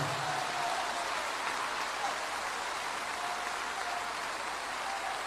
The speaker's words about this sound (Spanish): Nos hemos congregado hoy para darle gloria a quien gloria merece. Jesús de Nazaret. Dele un aplauso de gloria al Señor.